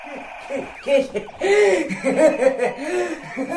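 A silver plastic toy gun gives off a run of warbling, hooting electronic tones, loud, drowning out a radio broadcast, with a steady high whine at first and repeated wavering bursts throughout.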